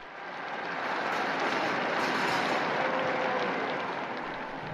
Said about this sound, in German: Und wir hören es am Applaus. Papst Franziskus begrüßt die Gläubigen auf dem Petersplatz.